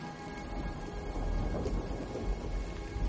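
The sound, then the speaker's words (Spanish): Steady rain pours down on a wet street where a car is parked, a constant dense hiss with a deep rumble underneath, like thunder rolling through the downpour. No voices are heard. “Un coche está aparcado en una calle mojada por la lluvia.”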